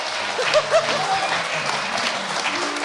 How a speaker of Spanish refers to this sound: Los que sí vinieron a la sala Julián Carrillo, dense todos un aplauso.